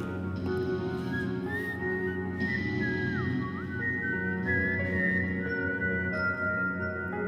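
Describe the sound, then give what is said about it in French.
Someone whistles the lively melody of Yankee Doodle, the tune rising and dipping in clear steady notes, with a constant low hum of background noise underneath and no talking. “Je me suis mis à la siffler avec lui.”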